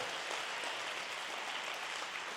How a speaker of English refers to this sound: Come on, one more time, church. It's a great place to clap and say amen.